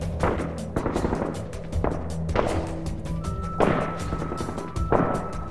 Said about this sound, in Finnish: Tiedustelutehtävän lopulla, kun olimme kävelemässä takaisin telttapaikalle, kuului teltan suunnasta laukauksia.